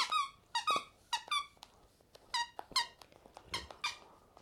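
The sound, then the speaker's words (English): A squeaky toy monkey squeaks repeatedly in quick, uneven bursts of shrill, harmonic squeals, loud, with brief pauses between squeezes and no voices. “Oh, this monkey squeaks!”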